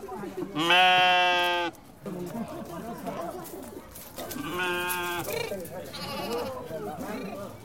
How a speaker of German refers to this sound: In den schmalen Gassen zwischen den Häusern bahnen sich Schafe den Weg in ihren Stall.